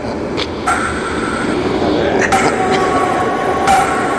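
A moving train rumbles steadily on its rails, a loud, dense low roar with a thin high whine over it and a few brief rattling bursts along the way.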